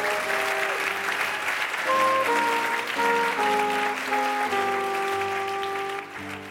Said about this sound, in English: All right, let's give a round of applause for getting through the lightning round.